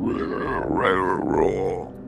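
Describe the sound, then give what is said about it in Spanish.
Loud, continuous pig grunting for about two seconds, a rough, voiced snorting that swoops up and down in pitch with a couple of surges, and no talking alongside it. “unos cuantos sonidos de puerco.”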